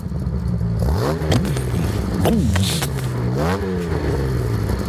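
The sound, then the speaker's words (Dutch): A 3.8-litre inline-six car engine with three SU carburettors idles steadily and is blipped several times, each rev rising sharply and falling back to a rumbling idle, loud, with no talking. “in lijnmotor. Laat even horen. Niks elektrisch.”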